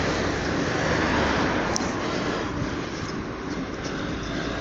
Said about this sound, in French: qu'est-ce que c'est que cette circulation là aujourd'hui Compliqué.